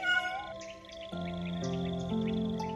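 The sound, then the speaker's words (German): A tiger cub whimpers in long, plaintive mewling cries that shift in pitch, fairly loud, continuing steadily with no one speaking. “Das Tigerbaby jammert, dass es sie aus den Augen verloren hat und nicht mehr wiederfinden kann.”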